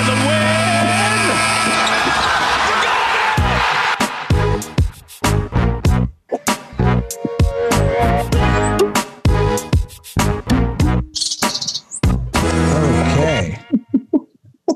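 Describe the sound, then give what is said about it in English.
A short, loud Raptors team theme sting opens with sustained tones, breaks into rapid punchy thumping hits, and then fades into high, chirpy bird sounds near the end. “well, I heard the I heard the beginning of like um, the raptors, and then it like faded into the birds,”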